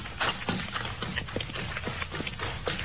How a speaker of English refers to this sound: Yes, a man running up the road, past the two fellows trudging home.